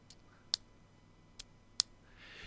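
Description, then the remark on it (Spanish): A ring taps sharply against a hard surface four times, producing bright, metallic clicks with short gaps between them, fairly loud against a quiet background. “Eh, yo acá estoy pegando con una virome en, mi anillo.”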